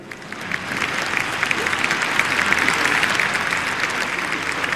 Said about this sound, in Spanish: Bien, si quieren aplaudir, aplaudan, pero con ganas, si no, no aplaudan, ¿sí?